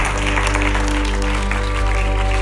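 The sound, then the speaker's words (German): A church audience applauds God in a steady, dense wash of clapping that holds loud and even throughout, with sustained low keyboard or organ tones humming underneath. “Gott einen Applaus.”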